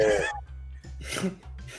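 A few sharp, breathy sneezes burst out close by, one after another, over a steady low background hum with no clear talking.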